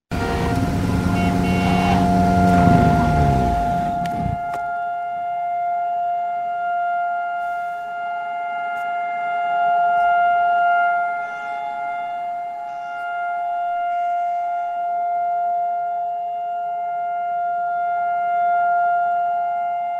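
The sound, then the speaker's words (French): A long, steady Holocaust remembrance siren holds one unwavering tone for the whole stretch, after a loud vehicle rumbles by at the start; faint road noise lingers beneath it. “c'est une sirène de, de, commémoration de la Shoah”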